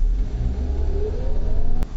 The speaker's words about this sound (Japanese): 運転し始めてからもう40年近くなる僕が、車のエンジンのかけ方がわからないっていうのは、これちょっと恥ずかしかったんですけど、まあ、何のことはない、ああ、走ります。